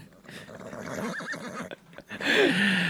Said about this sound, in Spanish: ¿Dónde tú consigues los soniditos estos que tú, sabes? Tú, literalmente buscas en Google caballo loco